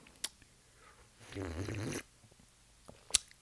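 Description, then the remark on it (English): A single loud, wet slurping sip from a glass lasts about half a second, with a couple of small mouth clicks before and after and no talking. “I'm sipping louder because I, I'm trying to get it on the mic because this might be the final episode.”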